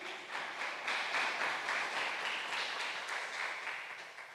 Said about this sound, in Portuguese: Aplauda ao Rei, aleluias.